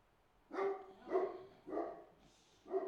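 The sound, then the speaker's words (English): A dog, Sir Robert, barks four times after hearing an acorn drop, in a steady rhythm, each bark a fairly drawn-out, tonal woof with short pauses between, heard alone without any talking. “He's freaking out.”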